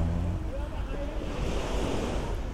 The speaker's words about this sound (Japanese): あとは、えー、毎日海に来てこうやって波の音が聞けること